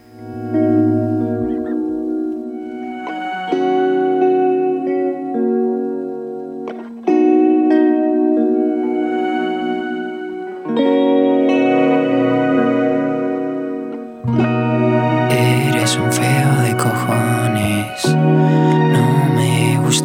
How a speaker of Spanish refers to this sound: Bueno, después de esta turra vamos a escuchar una canción un poco bonita.